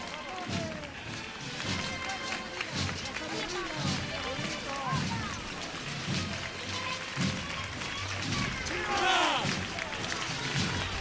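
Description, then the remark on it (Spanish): Many feet pound the ground in a fast, steady rhythm as bearers run with the canopied float of Nuestra Señora de la Esperanza along Bernabé Soriano street, surrounded by a loud, busy crowd of voices. “cómo sube eh, Nuestra Señora de la Esperanza, paso ligero, corriendo por Bernabé Soriano.”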